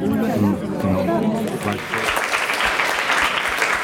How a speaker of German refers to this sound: Der Applaus ist für Marco Genoni, für den Gemeindepräsidenten.